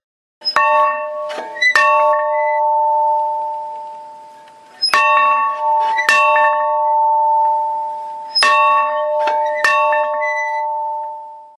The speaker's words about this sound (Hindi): ऐसे आवाज़ करने वाले पत्थरों को यानी कि रिंगिंग वाली साउंड पैदा करने वाले पत्थरों को बहुत ही इनोवेटिव एक नाम दिया गया है रिंगिंग रॉक्स तो इन पत्थरों को अगर आप हल्के से टैप करेंगे किसी हैमर की मदद से